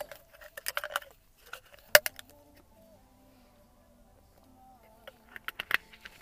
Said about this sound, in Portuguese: Antes vou dar um golinho de água, já estou todo seco.